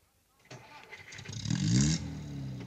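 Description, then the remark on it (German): A car engine cranks and catches, then revs, its pitch climbing to a peak before easing back as the car pulls away, being driven into a side road. Moderately loud, with no voices. “Fahr den Wagen in den Seitenweg.”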